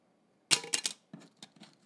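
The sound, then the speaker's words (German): A polystyrene Personalausweis identity card dropped onto a hard surface: a sharp, bright clatter followed by a few quick, lighter bounces that fade out, with a high, thin, slightly tinny ring. “auch mein Personalausweis hier, der ist aus Polystyrol.”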